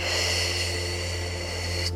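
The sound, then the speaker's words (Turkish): A long, steady exhale during a guided relaxation breathing exercise, a soft breathy hiss held evenly for about two seconds, with a faint low hum underneath and no talking. “Ve bırakırken”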